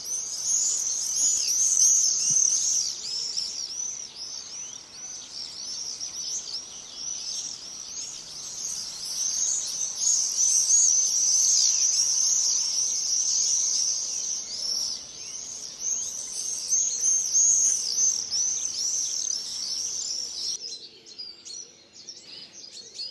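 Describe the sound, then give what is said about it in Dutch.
A flock of common swifts screams continuously in shrill, high-pitched bursts that overlap for about twenty seconds, then fades abruptly. No one speaks. “Ik denk eigenlijk dat ik het beste kan afsluiten door nog eens te luisteren naar de roep van eh, de gierzwaluw die uh, en soms als een groepje stuka's door onze straten denderen.”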